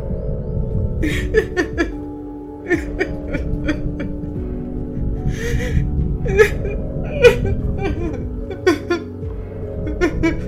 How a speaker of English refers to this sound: It's shaking. Shaking because it's crying. The sounds are definitely feminine. It's a girl crying, sobbing.